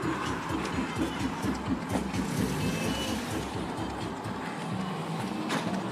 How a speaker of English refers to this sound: As someone obnoxiously plays music out of their car. I'm gonna leave this in just so you can hear obnoxiously loud the music is. His window's open.